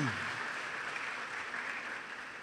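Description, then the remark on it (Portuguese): An audience claps steadily in applause to the name of the Lord, a dense, continuous patter of many hands at fairly even loudness throughout, with a faint voice briefly audible at the start. “Aplaudo o nome do Senhor, amados.”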